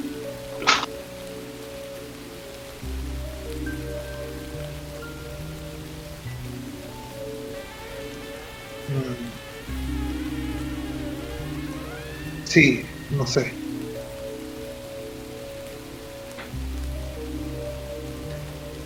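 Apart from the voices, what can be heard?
rain falling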